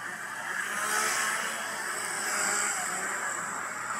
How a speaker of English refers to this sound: We're in the ghost scare zone now. Chainsaw's going crazy.